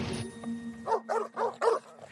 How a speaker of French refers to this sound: les chiens se mirent à aboyer. Le roi tendit l'oreille. Pas de cerf débusqué, pas de loup découvert. Jamais les chiens n'aboyaient ainsi.